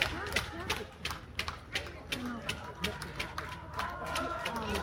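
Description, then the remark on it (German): Spectators applaud a passing female rider in the rain, with a steady run of sharp, bright claps, fairly loud and somewhat rhythmic, over a continuous bed of crowd murmur and background voices. “Es hat auch wieder angefangen, etwas stärker zu regnen und hier kommt der Applaus.”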